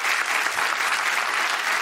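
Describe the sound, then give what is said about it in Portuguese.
A sound effect of steady, dense audience applause, many hands clapping at once in a continuous wash of sound for a couple of seconds, fairly loud. “A reação da plateia tem sido essa, tem sido, obrigado, tem sido muito positiva.”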